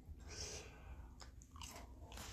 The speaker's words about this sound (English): Um, don't mind me, I'm munching on a cookie. the grasshoppers from Keebler Elves. I like remind you of Thin Mints.